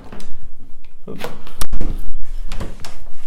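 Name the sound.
door being closed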